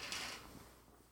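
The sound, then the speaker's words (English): A short clatter of a light plastic Starbucks drink lid knocked off a chair by a cat, falling and bouncing, with a bright scrape fading out over about a second, heard alone with no talking. “And the cat, and the cat just knocked it just knocked it down”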